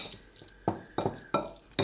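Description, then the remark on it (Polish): A spoon clinks and scrapes against a bowl in four sharp, evenly spaced strikes, fairly loud, as a thick tomato sandwich paste with pepper and salt is stirred and pressed down from above to make the tomato release juice; no one speaks. “Można leciutko jeszcze mieszając przygnieść od góry, tak żeby pomidor puścił do pasty trochę więcej soku niż przy samego, samym krojeniu z deski”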